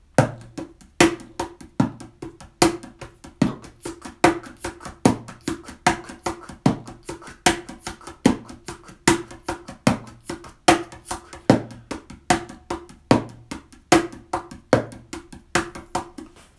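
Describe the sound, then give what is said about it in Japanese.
A small cajon is played by hand in a steady sixteen-beat groove: deep bass-drum-like thumps on beats one and three alternating with sharp, snare-like slaps on beats two and four, filled in by quick light ticking taps between them, clear with no talking. “ミニカホンを叩いてみた⑥〜16ビートについて”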